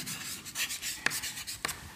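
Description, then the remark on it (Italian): A marker writing in red on a board: soft, scratchy rubbing strokes over about two seconds, with a couple of sharper squeaky taps as the tip lifts and lands. No one speaks. “Quindi il corpo è l'elemento cosmico della, scrivo qui in rosso, non libertà.”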